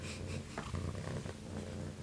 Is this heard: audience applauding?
no